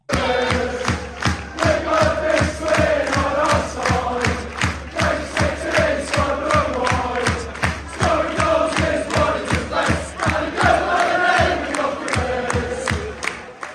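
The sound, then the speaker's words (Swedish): A large crowd of football supporters sings a British football chant to the tune of a well-known pop song, loud and sustained, with a steady pulsing rhythm carried by many voices throughout. “det, det, är ju, det är ju brittisk ramsa när det är som bäst.”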